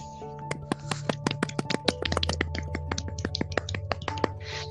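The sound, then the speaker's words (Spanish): Applause from a small audience welcoming guests: scattered, irregular hand claps keep coming for about five seconds over a low, steady background hum, with no voices. “Recibamos con un fuerte aplauso”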